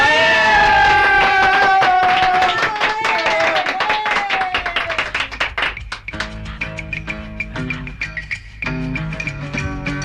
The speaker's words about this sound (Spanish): ¡Un aplauso!